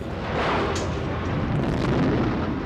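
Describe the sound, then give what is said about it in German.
A truck's fuel tank explodes at a plane crash site near Trudering, with a loud, dense roar that rumbles on for a few seconds, deep and continuous rather than a single sharp bang, with no voices. “Der Tank des Lastwagens explodiert.”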